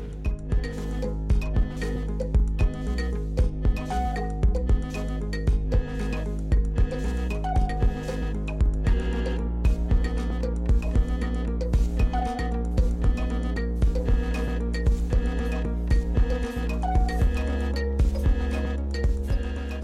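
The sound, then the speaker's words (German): An instrumental electronic track built from clinking, clicking mechanical percussion over a steady low drone, with regular rhythmic hits and metallic chimes, moderately loud and without vocals. “Gleich geht's los mit Andreas Rabe und Eiko Kempen aber vorher hören wir noch ein bisschen Musik”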